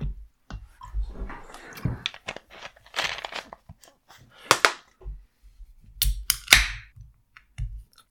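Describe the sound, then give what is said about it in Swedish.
Beer being poured: a run of crackling, clicking bursts and short fizzy hisses, with two louder sharp hisses near the end. Nobody speaks. “Jag häller upp min öl yes.”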